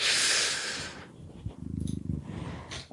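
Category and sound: animal, cat purring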